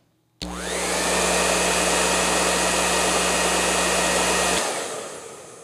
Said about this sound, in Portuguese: Muito bem, uh, tenho aqui o meu secador está aqui na minha mão. Eu vou ligar para vocês. Escutem só o ruído desse secador, ok? Eu estou falando aqui de um Parlux, tá? Que é um secador italiano que todos vocês conhecem, mas ouçam.